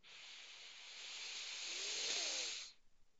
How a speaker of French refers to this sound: Et c'est ça le troisième poumon, c'est cette troisième partie de l'inspiration. Je ne sais pas si vous allez l'entendre. Je vais essayer de le faire un peu plus forcé pour bien l'entendre, mais ça fait vraiment quelque chose comme...